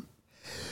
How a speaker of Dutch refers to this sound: sorry. Gezondheid, ja. godverdamme. Van de emotie moet ik niezen.